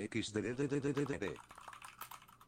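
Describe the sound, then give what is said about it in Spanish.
A person talks briefly, then rapid, irregular clicks of typing on a computer keyboard follow, fairly quiet, clattering on their own after the voice stops. “Se escuchó todo el teclado ahí, ¿no?”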